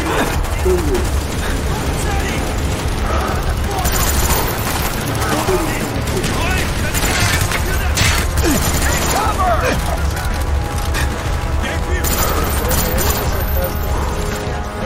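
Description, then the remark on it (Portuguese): Loud, sustained bursts of video game machine gun fire rattle on without pause as the player fights toward a truck and past explosion and avalanche zones, layered over a dense rumble of in-game crashes and explosions. “É uma metralhadora até pegar o caminhão e ultrapassar as zonas de explosão e avalanche.”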